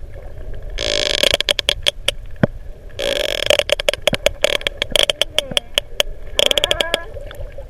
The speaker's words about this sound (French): Alors deux cachalots, c'est bien, mais quand on en a trois, qu'est-ce qui se passe Écoutez, un jeune que vous allez entendre, accompagné de deux autres cachalots un peu plus vieux.